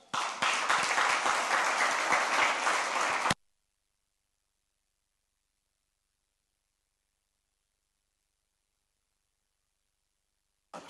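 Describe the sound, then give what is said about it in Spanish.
A church audience bursts into dense, sustained applause for God for about three seconds, loud, then cuts off abruptly into silence, with a brief burst of noise returning at the very end. “Muy bien, ¿le da un aplauso a Dios?”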